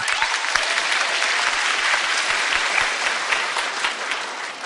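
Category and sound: crowd, louder audience applause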